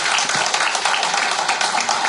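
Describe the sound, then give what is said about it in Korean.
A church audience applauding together during a service, a dense, steady wash of many hands clapping at once, fairly loud and sustained for a couple of seconds with no talking over it. “하나님 다 역사하시고 여러분 이제 이 교회를 정말 야곱의 꿈과 같이 야곱이 보인 것 같이 여러분도 이제 보이는 역사 좋은 성전에서 여러분 예배 드리는 역사가 곧 일어나기를 확신하면서 박수 한번 확신합니다.”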